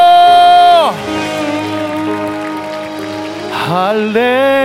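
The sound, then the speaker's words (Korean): An audience at a church worship service claps steadily throughout as praise to God, a dense patter of many hands running under a loud, sustained voice that holds long notes and swoops down in pitch twice. “하실 수 있으신 만큼 더 큰 감사와 영광의 박수 주님께 올려드립시다.”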